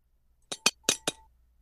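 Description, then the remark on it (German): Four sharp taps of a small, hard waffle lightly knocked against a plate, in two quick pairs, each with a faint ceramic ring trailing off. No voices. “Das war, das war, nee, das war, das war die Waffel. Das war kein Besteck. Das Ach war so. der Teller. Hast du die dagegen gehauen?”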